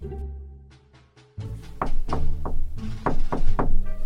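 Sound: knocking on a door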